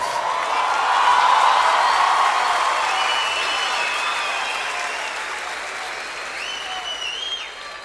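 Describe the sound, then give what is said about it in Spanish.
Sustained audience applause, a dense wash of many hands clapping steadily throughout, loud at first and easing slightly toward the end, with a few faint whistles or cheers riding on top. “Nos vamos llenos de alegría, llenos de aplausos, llenos de voces, llenos de ojos, llenos de felicidad para casa descansar un rato y nos volvemos a encontrar por la ruta.”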